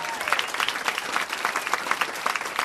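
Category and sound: crowd, audience applause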